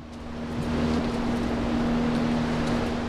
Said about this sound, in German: Im Hintergrund läuft ein sehr, sehr großer Ventilator. Wir sind ja hier in einem geschlossenen, unter einem geschlossenen Glasdach und wir wollen natürlich, dass die Luft gut durchmischt wird für die Pflanzen.